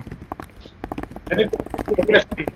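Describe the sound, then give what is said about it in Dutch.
Rapid, uneven keyboard clicks tap away for the whole stretch, with a person talking over the typing in the second half. “als je typ dan horen Oh, sorry, my bad, my bad.”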